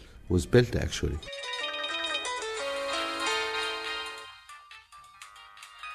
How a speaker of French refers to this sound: Impossible aujourd'hui d'imaginer même le coin le plus reculé de l'Afrique sans la sonnerie des téléphones portables.